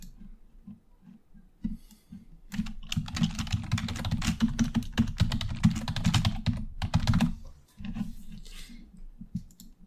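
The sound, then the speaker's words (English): Rapid keyboard typing of a message, a dense run of crisp key clicks that starts sparse, builds into a steady burst for several seconds, then tapers off with a few scattered taps. “I'm gonna send you a message.”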